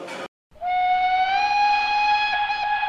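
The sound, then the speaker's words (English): A short burst of hiss, a brief silence, then a loud, steady train whistle blows one long, sustained note that holds to the end as a train arrives, unaccompanied by voices. “Train of Pascual is now arriving. Please allow all passengers to exit the train before boarding.”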